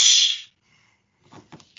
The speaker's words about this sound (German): Jetzt bräuchten wir so einen Peitschen-Sound auf, auf Knopfdruck.